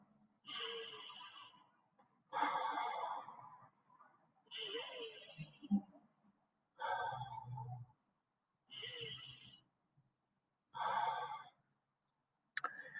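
Slow, deep breathing, with six or so long, airy inhales and exhales spaced a couple of seconds apart in a steady, unhurried rhythm, with no talking.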